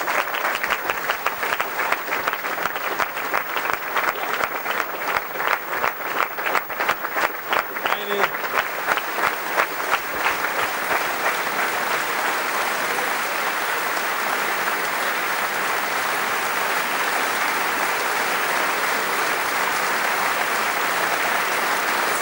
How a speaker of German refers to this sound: Sie müssen ja danach noch mehr klatschen.